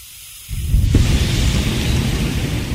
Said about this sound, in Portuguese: Não, então, mas é tipo um, o, o, álcool sai da latinha em formato de aerosol, assim, porque a latinha é tipo de desodorante, sabe? Você tem certeza disso? Aham, eu, eu tenho aqui na minha mão, eu tô com ele aqui, ó, ó o barulhinho